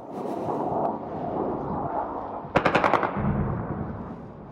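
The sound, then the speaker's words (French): A rapid burst of automatic gunfire, about half a dozen sharp shots in quick succession, rings out over a constant rumbling urban background in Khartoum, where military and paramilitary forces are fighting, followed by a low thud. “Finalement, les militaires et les paramilitaires ont pris les armes et Khartoum est devenu leur terrain de bataille.”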